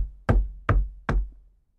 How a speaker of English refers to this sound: He crossed the room and knocked on the wall of the torture chamber.